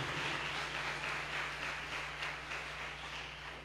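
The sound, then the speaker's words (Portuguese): An audience applauds the Lord Almighty, a dense wash of many hands clapping at once that holds at a fairly even level and eases slightly toward the end, with a low hum underneath and no talking. “Pode aplaudir ao Senhor Todo-Poderoso.”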